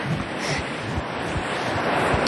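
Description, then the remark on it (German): Atlantic Ocean waves, fairly small, wash steadily onto a beach with dunes in the morning, a continuous broad rushing surf with soft low thumps of wind buffeting the microphone. No voices are present. “Dann seid ihr jetzt also live dabei am Atlantischen Ozean, wo die Wellen hier auf den Strand platschern.”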